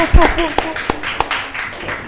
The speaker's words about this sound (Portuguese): Bem-vindos ao Breakfast with Fred! Salva de palmas, pessoal!